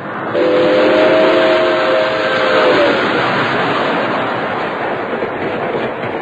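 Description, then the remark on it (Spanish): A train rolls along the rails in a loud, steady rumble, with a shrill whistle sounding for a couple of seconds near the start. No one speaks. “El tren no puede pararse donde tenemos que bajar nosotros.”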